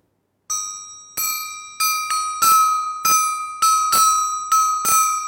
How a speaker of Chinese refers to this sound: 听起来特别像小狗的汪汪叫，是不是啊？它叫响展啊，是我们呃国家南方地区在福建南音啊用的一种小型的打击乐器，响展或者叫小叫锣，类似这样子的。